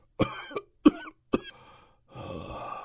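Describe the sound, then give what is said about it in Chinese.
A man coughs three times in quick succession, each cough a sharp, harsh burst, followed by a rough, rasping breath after a brief pause. No one speaks. The coughing comes from the main war chariot, from Qi Huangyang, the general commanding the Jin state's chariots in the Spring and Autumn period. “就在这时，从主战车上传来了一阵阵咳嗽声。”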